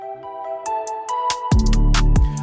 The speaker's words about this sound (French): Bon, j'avais dit que ça allait être un peu plus doux, alors je vais mettre des sortes de cloches avec un max de résonance.